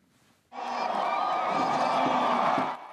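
A deafening crowd cheers and roars in a dense, sustained wall of voices and shouts, starting abruptly and holding at full volume for over two seconds before cutting off.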